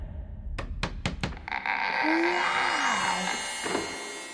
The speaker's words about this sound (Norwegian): Gå bort til masten. Mottatt. Dunk lett helt nederst.